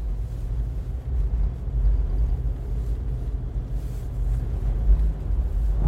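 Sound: car driving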